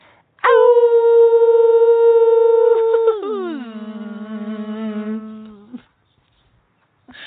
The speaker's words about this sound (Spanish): Por aquí está zumbando una abejita y nos despedimos con su vibración ah, y la de las ovejas.